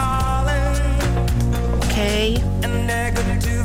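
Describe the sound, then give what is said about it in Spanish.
A recorded song plays loudly and continuously, with layered sustained instruments and vocals over a steady percussive beat, filling the whole stretch without any talking over it. “Esto que están escuchando se llama ….”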